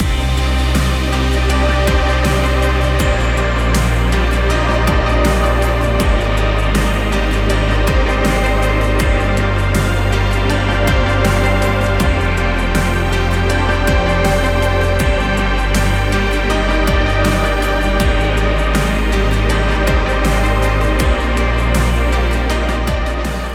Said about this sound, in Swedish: Samma låt, fast mer stråkar. Mera reverb. Eller? Eh, rumseko. Rumseko. ja, nej, lite svulstigare men samma. Ja, lite svulstigare men samma.